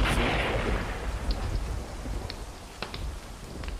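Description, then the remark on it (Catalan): A deep thunderstorm rumble rolls on steadily with a hiss like rain, slowly fading over a few seconds, with a few brief crackles breaking through near the end. “Al cap d'una estona, la tempesta va anar decaient”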